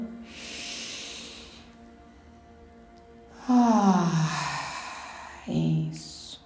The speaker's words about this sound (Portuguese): E respira profundamente, uma respiração que se você quiser, ela pode vir da ponta do dedão do pé até a ponta do seu fio de cabelo. Vou fazer junto com você, começando na primeira respiração.